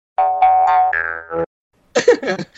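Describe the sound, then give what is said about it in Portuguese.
A short, fairly loud ringtone-style melody of a few stepped, bright tones plays alone, the ring of someone making an incoming call, like a Skype call alert, followed after a pause by a brief burst of voice. “Cara, tô ouvindo o toque de alguém chamando. Foi a versão acústica do Skype.”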